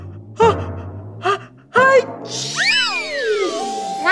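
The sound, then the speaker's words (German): A voice acts out a huge elephant sneeze: three rising, gasping intakes of breath, then a loud explosive burst that turns into long, wavering trumpet-like squeals sliding up and down in pitch. “Und dann geht's los mit mir, …, und einem super duper mega Karacho Elefantennieser.”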